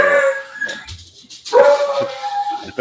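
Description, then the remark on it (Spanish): A pet dog lets out two drawn-out, wavering howls separated by a short pause, with a few sharp barks and yips mixed in around them. “Esta vez, no ha sido mi perro. No, ha sido el mío.”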